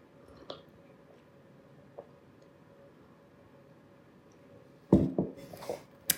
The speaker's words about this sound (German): Ich muss mal einen Schluck trinken.